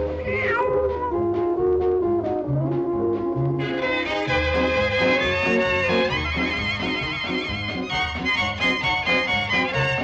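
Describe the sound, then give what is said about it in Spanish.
Meow-like cries, apparently a voice imitating a cat, rise and fall over loud, steady band music with a driving bass rhythm that keeps going the whole time. “El gatito repitió”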